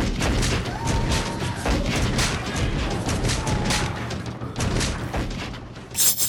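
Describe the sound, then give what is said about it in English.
A loud, sustained volley of musket gunfire from soldiers shooting at a man, many shots cracking and booming over one another in rapid succession for several seconds, with a final sharp burst near the end. “There he is! Shoot him, somebody!”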